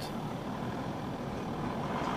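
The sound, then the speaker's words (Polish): The engines of two cars rumble steadily as they pull up, one from each side, a continuous low growl with the engines left running, with no voices over it. “I podjeżdża z jednej strony i z drugiej strony samochód.”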